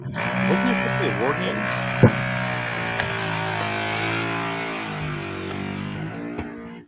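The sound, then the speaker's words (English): A power drill whirs loudly and continuously, drilling in the ceiling overhead, a steady buzzing whine that shifts slightly in pitch, with a sharp knock partway through and faint voices underneath. “there was a, a major drilling that just began above my head.”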